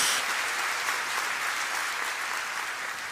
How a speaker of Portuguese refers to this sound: Dá uma salva de palmas aí, recebe a profecia em nome de Jesus.